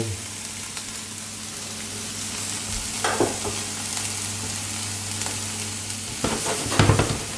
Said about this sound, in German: Ihr seht, das brutzelt jetzt schön hier. Sieht auch schon toll aus, ne? Also nicht braun werden lassen,